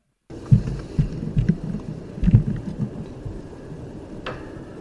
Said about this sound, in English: You can def- you can definitely hear the knock. So I'll play it one more time for everyone. Right. So it's it's a definite knock or a definite noise off in the uh, off in the distance. I recorded it with this parabolic dish.